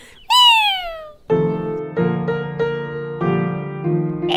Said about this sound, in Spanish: Este gatito les dice adiós. ¡Miau, miau!